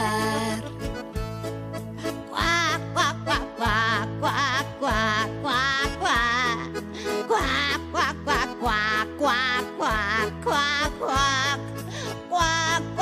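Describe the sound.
A bouncy Spanish-language children's song about little ducklings going to bathe, with a steady bass line, where a voice sings repeated duck-like quacks in rhythm with the music, loud and up front throughout.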